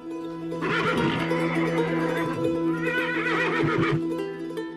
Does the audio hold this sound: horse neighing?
yes